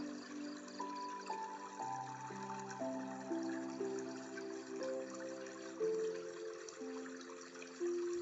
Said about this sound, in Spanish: Estoy sentado o sentada en la orilla y observo el sonido del agua.